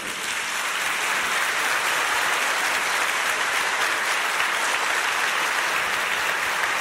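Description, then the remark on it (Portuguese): Sustained applause from an audience: many hands clapping in a dense, crackling wash that holds at a steady, fairly loud level for about seven seconds, with no voices heard. “E faz favor de aplaudir de novo.”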